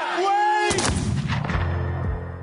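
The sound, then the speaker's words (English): A held musical tone is abruptly cut off by a loud, sharp pistol shot in Alexander Hamilton's duel, followed by a second booming report and a rumbling, echoing decay. “Many historians, including Chernow, believe Hamilton deliberately fired into the air, throwing away his shot.”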